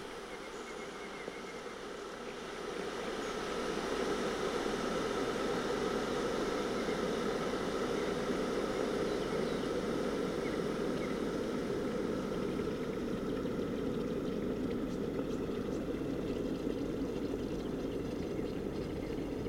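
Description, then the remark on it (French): An electric kettle heating water for tea: a steady, rushing roar with a low rumble that switches on after a couple of seconds and holds at an even level, with no voices. “Donc ça, c'est le bruit de la bouilloire que nous mettons en marche plusieurs fois par jour euh, afin de faire chauffer de l'eau euh, pour boire des tisanes ou des thés en sachet.”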